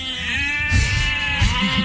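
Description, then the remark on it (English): Neighbors' goats bleating loudly, a sustained, wavering cry that swells twice with harsh, strained screams and bellows, with no voices alongside. “now all of a sudden you've got new neighbors with goats”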